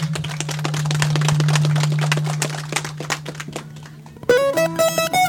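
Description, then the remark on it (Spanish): A crowd claps for the music group of Cardón Pata for about four seconds, many overlapping sharp claps over a steady low hum, fading as a bright, tonal musical instrument begins playing near the end. “Mientras tanto, vamos a escuchar su música de sector de Cardón Pata A ver, fuertes palmas para el conjunto de Cardón Pata”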